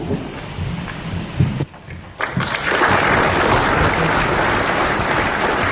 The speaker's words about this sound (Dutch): Zo, applaus. Ja, lang niet gehoord.